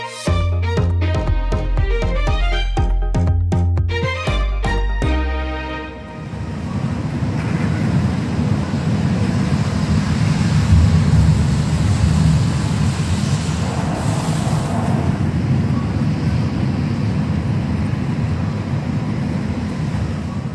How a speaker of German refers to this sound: Was sich da anhört wie ein gigantischer Staubsauger, ist tatsächlich der Tornado, der vor wenigen Tagen eine Schneise der Verwüstung durch einige Dörfer in Tschechien gezogen hat.